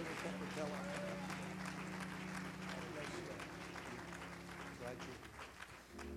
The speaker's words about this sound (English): Go to clap our hands unto the Lord as our evangelist comes.